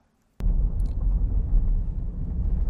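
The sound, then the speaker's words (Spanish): A Defender 4x4 SUV drives over rough off-road ground on a steep slope, its deep engine and tire noise cutting in abruptly after a brief silence and continuing steadily, with faint rattles and bumps. “el Defender tiene tracción suficiente para seguir avanzando sin mucha dificultad.”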